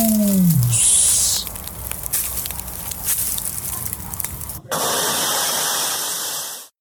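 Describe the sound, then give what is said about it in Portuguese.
Water splashes onto a campfire, crackling at first, then a loud, steady steam hiss surges up and sizzles on for a couple of seconds before cutting off abruptly. “No mais, eu agradeço a todos, vou jogar aqui uma água na fogueira, nos vemos nos nossos próximos episódios e até mais.”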